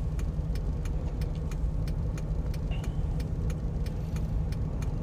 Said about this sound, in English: Oh my god. Sorry, there's so much traffic.